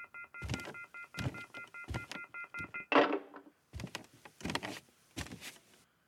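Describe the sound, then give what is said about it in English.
A steady, shrill electronic warning tone from a telephone left off the hook drones for a few seconds, cut by clunky handling thumps and clatter; it then stops and more knocking and rustling follow. “the our phone here and Nobody Listens to Paula Poundstone apparently has been off the hook for a long time”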